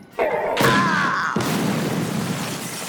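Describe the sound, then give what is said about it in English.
A body thrown across a lobby by a thug slams into the wall in a series of loud crashing impacts, three sharp hits in quick succession, followed by a dense, rumbling wash of noise that lingers to the end. “Thug 3 just threw General Seating across the lobby and he smashed into the wall.”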